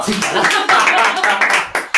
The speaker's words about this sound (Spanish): Un aplauso.